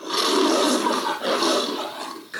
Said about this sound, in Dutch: Senti il leone, per un periodo Firenze teneva alcuni veri leoni nelle varie piazze della città.